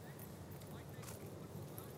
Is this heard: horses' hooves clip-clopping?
yes